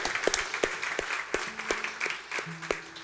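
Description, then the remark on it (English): A crowd at a Storyline gathering on New Year's morning applauds the band steadily. A dense wash of many hands clapping, with a few sharper claps standing out and faint cheering voices rising over it. “Uh, how about our, can I hear for the band?”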